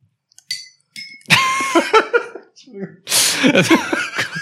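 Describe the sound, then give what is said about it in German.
A glass bottle clinks against a drinking glass twice, two short bright ringing taps, followed by people laughing and talking loudly over the rest. “Wir stellen nie wieder eine Flasche neben dein Glas.”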